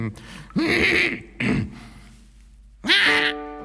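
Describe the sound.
A person playing a troll imitates a scary roar with a few short, strained growling bursts, sounding more feeble and throaty than frightening.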